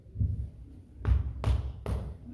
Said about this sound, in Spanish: Le tocaba así la espalda y le decía